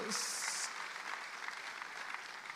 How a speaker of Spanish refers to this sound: Le da un aplauso a Dios, hermanos.